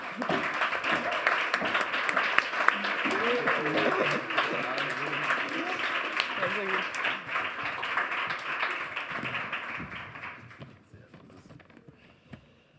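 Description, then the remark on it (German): A crowd applauds to welcome the evening's athletes, with dense, crackling clapping for about ten seconds, some voices murmuring underneath, before the clapping fades out quickly into near silence. “Einmal Applaus bitte.”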